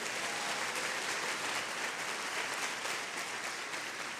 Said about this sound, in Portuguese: Queria que você aplaudisse Jesus.